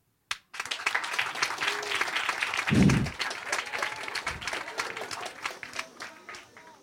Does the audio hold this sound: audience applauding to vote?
yes